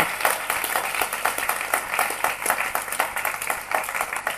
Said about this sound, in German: Ihr habt gute Musik, ihr habt, ja genau, gebt doch einen Applaus. Ich finde es wirklich cool, was ihr macht.